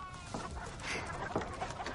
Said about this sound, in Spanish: Junto a ella, unas gallinas picotean grano del suelo.